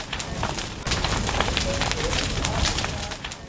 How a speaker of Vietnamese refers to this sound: gió, mưa, lửa là nhạc nền của cuộc khủng hoảng khí hậu ở Úc.